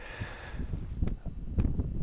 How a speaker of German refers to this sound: aber es ist toll und es ist still. Es ist wahnsinnig still. Man, man hört den Wind ein bisschen, aber ansonsten gar nichts. Kein, kein Rauschen von Bäumen oder so, kein Verkehrslärm und das ist echt nett.